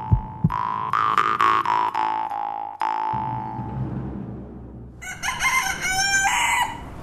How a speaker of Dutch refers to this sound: Hanen en kippen dit idyllische plaatje waar Rubenskenner Bert Watteeuw en ik doorwandelden, vormt de toegang tot het uitgestrekte landgoed Het Steen